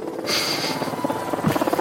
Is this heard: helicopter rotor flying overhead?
yes